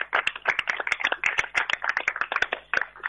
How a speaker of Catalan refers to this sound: I, i res, un aplaudiment pels quatre guanyadors.